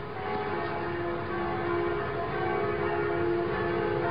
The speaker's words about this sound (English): There were also celebrations abroad, places like Paris, where the actual church bells were ringing. Listen to that.